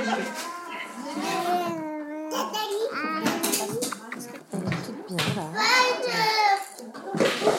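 High-pitched voices of several young children overlap in a busy, continuous chatter of playful calls and squeals, fairly loud, with no pause throughout.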